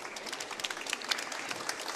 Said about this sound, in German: der dankenswerterweise übersetzt hat, bitte einen kurzen Applaus